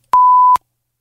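A single steady censor beep, a pure mid-pitched tone lasting about half a second with abrupt clicks at start and end, loud and isolated with no talking around it.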